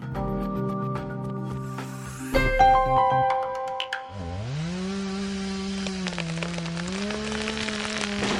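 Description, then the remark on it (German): Chainsaws used by forestry workers in the Black Forest, Germany, clearing storm-felled timber, whine and rev, their pitch dipping as the blade bites into wood and then holding a steady, droning cut, with faint patter and rustle in the background. “Sägearbeiten im Schwarzwald. Die Forstarbeiter holen sogenanntes Sturmholz aus dem Wald.”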